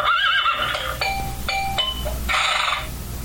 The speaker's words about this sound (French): Donc, on peut très bien y remarquer euh, non seulement les petites musiques sympathiques, mais mhm. également les effets sonores euh, ben des chevaux, donc des licornes, mhm.